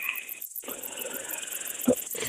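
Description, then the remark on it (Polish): A common field grasshopper chirps on a hot meadow at summer noon in a steady, dry, high-pitched buzzing stridulation with a fast pulsing texture, broken by one brief pause, with no voices. “I tutaj Konik mamy konika tak.”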